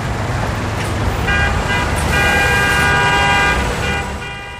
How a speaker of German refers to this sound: Da waren viele Autos und Häuser. Das hörte sich sehr laut an.